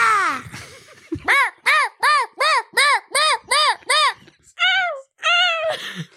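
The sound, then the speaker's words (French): A person vocally imitates a seagull for a recording, letting out a rapid run of about nine loud, nasal, arching calls, followed by a few longer wailing cries. “Alors, faut que vous vous mettiez ici pour faire les mouettes.”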